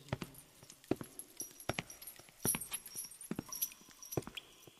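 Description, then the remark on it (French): Sharp, hard boot footsteps strike a solid surface at a steady, measured pace, each click crisp, with no one speaking. “Le bruit des bottes était sec et précis, rappelant le balancier d'une pendule, parfaitement mesuré.”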